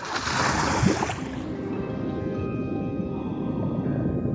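A bright splash as a swimmer dives under the water, then the sound turns muffled and low: a steady underwater rumble in a kelp forest with faint tonal hums and no voices.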